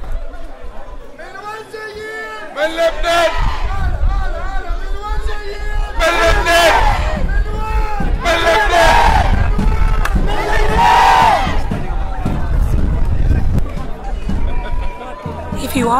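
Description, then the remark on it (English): A large crowd of Lebanese diaspora protesters at a solidarity protest against the Lebanese government chants and shouts together in loud, rhythmic bursts, voices overlapping into a dense roar with repeated swells of collective yelling, continuous throughout. “This is one of dozens of solidarity protests of the Lebanese diaspora gathering around the world in support of their family and friends in Lebanon at the moment, protesting against a government that they have deemed corrupt and unworthy.”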